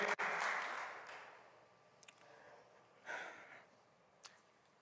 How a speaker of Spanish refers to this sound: Wow, alguien dele un aplauso al Señor.